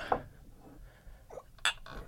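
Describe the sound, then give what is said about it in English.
Drinking glasses of strong alcohol clink together in a toast, two bright, sharp taps about one and a half seconds apart, with faint rustling and low background noise between them. “Thank you. Cheers. Cheers.”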